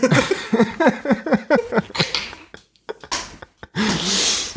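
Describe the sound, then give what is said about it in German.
Someone does exaggerated, theatrical sobbing: a rapid run of wavering, whimpering wails, then sniffling, gasping breaths and a long shaky exhale. “Äh, ja, also kannst jetzt du kannst jetzt ein bisschen leise weinen, aber nicht so laut oder du mutest eben deine Spur, das ist in Ordnung.”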